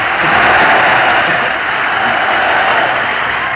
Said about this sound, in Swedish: Tack för applåderna.